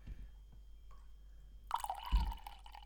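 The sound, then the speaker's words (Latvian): A pint of beer is poured into a glass: after a near-silent stretch with a faint drip, a steady splashing, gurgling stream starts and runs to the end, with a soft low thump partway through. “Ielies, gribēju, lai dzirdētu, kā ielai.”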